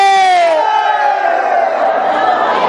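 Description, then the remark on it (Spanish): A loud crowd of men in an audience shouting and cheering together as the host compares whether men or women shout louder, a sustained roar of voices that swells at the start and holds steady throughout. “¡Las mujeres! ¡Los hombres! Definitivamente, los hombres.”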